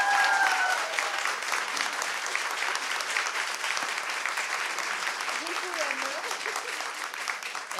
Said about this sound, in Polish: Mogę Państwa nagrać, bo ja tego potem muszę... Znaczy, jeszcze raz brawa, bo się nie nagrało. Jeszcze raz. To pójdzie na Facebooka.